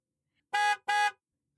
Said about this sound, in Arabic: أسمع منبه الحافلة